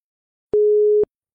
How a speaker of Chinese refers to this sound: 陈朵微皱着眉头，又放下了手中的电话，又是忙音。